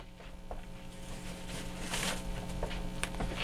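Paper from a discard pile being torn, several quick ripping strokes over a few seconds, moderately loud, with a steady low hum underneath and no one speaking.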